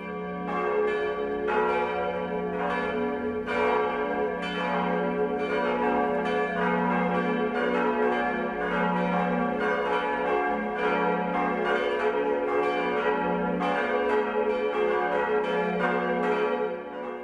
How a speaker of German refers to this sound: Es ist 12 Uhr. Das Mittagsläuten kommt heute aus Marquardt Stein in Oberbayern.